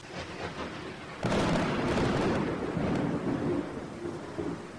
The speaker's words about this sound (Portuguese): Tempestade. As chuvas são tão fascinantes, elas nos trazem purificação de ar, limpeza de solo.